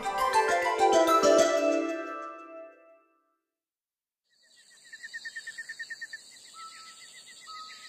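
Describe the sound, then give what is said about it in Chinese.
After a short burst of other sound and a silent pause, cicadas start buzzing: a high, shrill drone with a quick, regular pulsing, moderately loud and steady until the end. “知了又开始烦躁了。”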